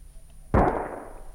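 A single loud shotgun shot, fired by Mr. Winkle while out shooting crows early in the morning before breakfast, cracks out of near silence, a sharp booming blast that trails off in a long rumbling decay. No one speaks.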